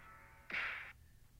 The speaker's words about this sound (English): And then I'm also going to throw a punch.